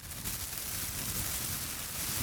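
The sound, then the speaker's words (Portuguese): A plastic supermarket bag is crumpled steadily to mimic the sound of fire, its dense, hissing crackle running the whole time. “Ó, isso aqui é a, saco a sacola do supermercado também, aqui, ó. A sacola do supermercado é o som do fogo, né?”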